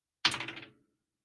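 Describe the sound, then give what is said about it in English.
Dice are rolled to pick home or away team for a Dallas Stars versus Minnesota Wild hockey bet, clattering onto a hard surface with a sharp first strike, then a quick run of rattling clicks that taper off within about half a second. Fairly crisp, with no voices. “Apparently, the dice are the fan of the line movement as well.”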